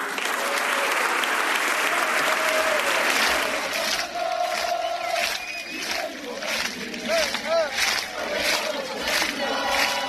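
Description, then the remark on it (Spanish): A large crowd of Osasuna supporters at El Sadar stadium chants the club's war cry in unison after a victory while clapping along, a loud, dense roar of voices with rhythmic applause bursts and a few whistles cutting through the din. “Después de cada victoria de Osasuna en el Sadar, se vuelve a corear.”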